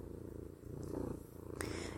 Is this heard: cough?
no